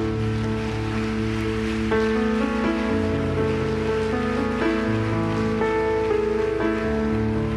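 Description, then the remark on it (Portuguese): A crowd claps loudly and steadily for several seconds, applauding for Jesus, a dense wash of applause over sustained musical chords playing underneath. “Vamos aplaudir a Jesus bem alto.”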